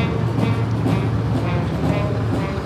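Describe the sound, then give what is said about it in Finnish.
Two CV9030 infantry fighting vehicles rumble past the reviewing stand in a military parade, a dense, continuous low-frequency engine roar and track clatter that stays loud and steady throughout. “Ensimmäinen niistä juuri nyt ohittaa vastaan ja ohittaa korokkeen ja meteli alkaa olla sen mukainen.”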